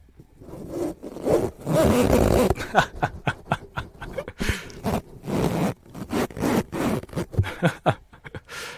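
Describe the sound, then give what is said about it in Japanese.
A fur windscreen (windjammer) is worked onto a microphone: loud rustling and scraping, a dense burst first, then a run of short irregular scuffs and brushes of handling noise, with no talking. “ウィンドジャマーをね、つけてみようと思います。”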